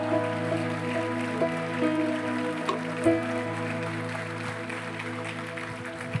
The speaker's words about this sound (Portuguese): Se é pra aplaudir, aplauda com vontade, irmão.